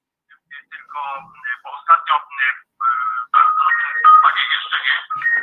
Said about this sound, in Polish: a nie, jeszcze nie, jeszcze najpierw telefon, przepraszam, że nie wyłączyłem dźwięku.